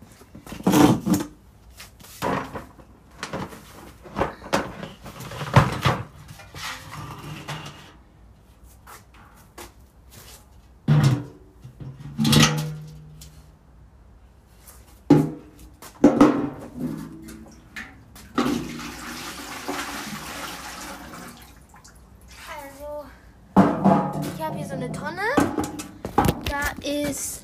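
A hay bin being tipped out: a run of irregular rustling, scraping and clattering bursts as contents tumble and spill, with brief pauses between the louder dumps.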